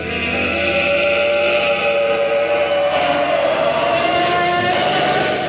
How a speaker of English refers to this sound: Slowly, the creature lifts its head, revealing misshapen claws instead of human hands. Then, the thing turns to MacReady and opens its mouth, releasing an otherworldly howl.